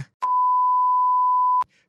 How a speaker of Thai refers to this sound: ถ้าเกิดว่าได้ยินเสียงปี๊บตะกี้นี้ขณะที่กำลังเล่านะครับก็อย่าเพิ่งตกใจไปครับ เพราะว่าข้อมูลในไฟล์นี้ถือได้ว่าเป็นข้อมูลปกปิด